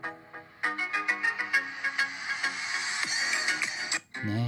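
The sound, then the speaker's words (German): A relaxed music sample included with the Mojo app, with a bright, plucked melody of quick repeated notes over a steady beat, playing without any voices and briefly dropping out before a low, fuller passage begins. “und was auch sehr schick ist bei äh, Mojo, da ist äh, ziemlich viel Musik mit dabei, also von äh, solchen Sachen hier.”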